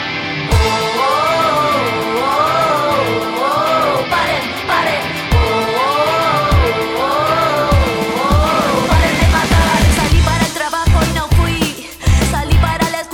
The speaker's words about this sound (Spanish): este grito que es una canción de resistencia y de lucha